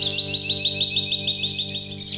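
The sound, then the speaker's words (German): A European robin sings a quick run of high, thin chirps and trills, clear, over a steady low humming drone in the background. “Und das ist ein Rotkehlchen.”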